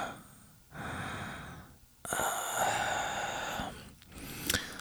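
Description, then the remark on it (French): Moist, heavy breathing right up against the ear, a few slow inhales and exhales with brief pauses between them, close and intimate with no talking. “Inconfortable comme la respiration humide au creux de vos oreilles.”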